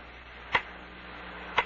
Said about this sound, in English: That clock, the way it ticks. oh, yeah. Everybody notices that. Everybody's ever been in this room, that is. It's more like a heartbeat, they say, huh? Strong, solid, full life. Like my heartbeat.